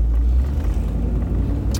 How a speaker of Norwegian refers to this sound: Her er enda en sånn Nato-bil. En gammel eh, Land Cruiser. De er kule. De er veldig kule. Den var litt rusten, men kul.